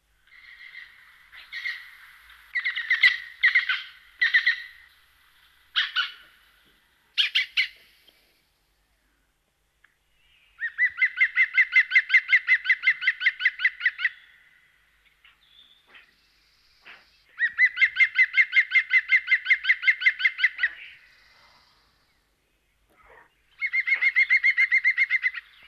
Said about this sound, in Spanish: Bueno, un canto. ¿Pájaro grande o pequeño? Se escucha desde lejos, ¿eh? Sí, es muy sonoro, muy llamativo. Mm, la, manera más fácil de localizar este pájaro de tamaño mediano. Es el segundo más grande de los pájaros carpinteros que tenemos en Asturias